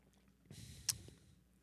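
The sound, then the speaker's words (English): A short, quiet slurping sip of coffee lasting about half a second, with a brief sharper hiss near the end, followed by soft breathy noise; no one speaks. “I'm going to take my first take ever sip off. of coffee.”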